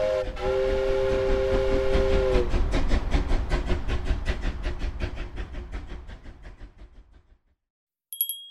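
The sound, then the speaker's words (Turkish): A steam train whistle sounds for a couple of seconds as the train chugs past with a rapid, rhythmic puffing that gradually fades away, followed by a brief bright chime at the end. “Biz de trenimizi atlayalım ve bir sonraki durağımıza gidelim.”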